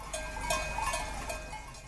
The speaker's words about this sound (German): Geradezu meditativ läuten aus der Ferne die Glocken der Kühe und leise schlagen die Wellen des Achensees an das Ufer.